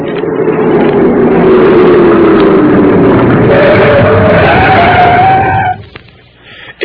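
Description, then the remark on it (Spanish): A long, loud screech of tires skidding, a sustained squeal with a sweeping pitch and rumbling engine noise, lasting nearly six seconds before cutting off abruptly into quiet. “Ya volvió con el ruido de las llantas.”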